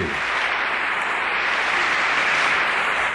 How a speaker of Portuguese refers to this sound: E vamos aplaudir Zig bem forte.